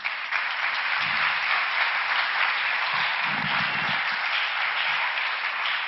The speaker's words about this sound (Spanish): Dele palmas al Rey.